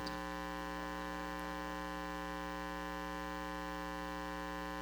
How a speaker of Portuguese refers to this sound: Eu queria estar ouvindo o som de aleluias mas eu estou ouvindo o som do ar-condicionado.